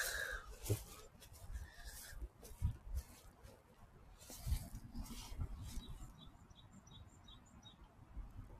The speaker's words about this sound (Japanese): なんか鳥が鳴いておりますね。